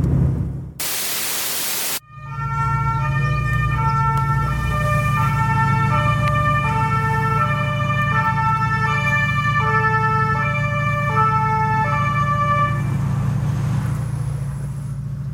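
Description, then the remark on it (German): Ambulance and police sirens blare in steady alternating two-tone patterns over a low engine rumble, in front of an agency parking lot, after a short harsh burst of static at the start. “Krankenwagen und Polizei direkt vor dem Agenturparkplatz.”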